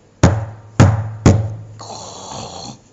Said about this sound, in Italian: Ma il porcello ha visto il lupo che entrava nella casa della gallina. È preoccupato, bussa alla porta.